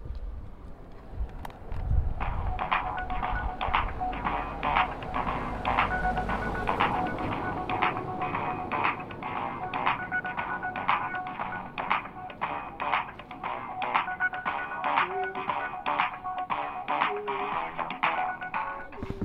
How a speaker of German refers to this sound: Also wir sitzen jetzt, äh, nein, wir stehen jetzt hier vor der Tür am Plan 3 und schauen uns eine Hackspace-Klingel an. Und die soll eine schöne Wartemelodie spielen, wenn man sie drückt.